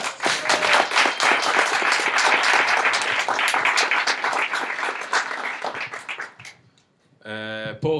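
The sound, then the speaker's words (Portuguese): A crowd applauds with dense, steady clapping that holds strong for about six seconds, then thins out and dies away before a voice starts speaking. “Barulho aí, pessoal.”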